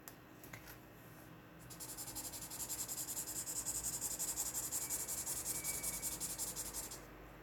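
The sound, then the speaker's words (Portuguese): A marker scrubs rapidly back and forth across paper, coloring in another color: a steady, scratchy rhythm of strokes that runs for several seconds before stopping, with no voices. “Eu vou pintar de outra cor.”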